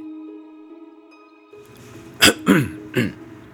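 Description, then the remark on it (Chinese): Three short, harsh coughs in quick succession beside a bed in a city hospital, the second one slightly drawn out, rising over a steady low electrical hum that fills the opening seconds. “老罗顺着咳嗽声，缓缓转向床边。”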